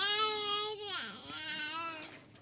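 A baby cries in a sustained, wailing voice with rich harmonics, the pitch dipping briefly mid-cry before rising again, steady for a couple of seconds with no talking.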